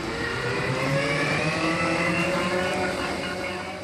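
An electric self-balancing Segway, a stand-on vehicle steered by leaning the body forward or sideways, drives along with a steady, high motor whine over a constant rolling hiss, its tone shifting slightly upward as it moves. No one speaks.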